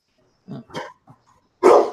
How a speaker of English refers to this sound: Whoa. That sounds, sounds like a big dog.